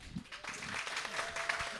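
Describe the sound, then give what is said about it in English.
A short burst of audience applause, a quick round of applause recorded for a special edition, many hands clapping in a dense, crackling wash that stays steady and fairly loud throughout, with a faint voice mixed in. “Do a, do a little quick round of applause for a special edition.”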